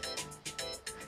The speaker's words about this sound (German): Das ist mein Wecker, dass ich los muss.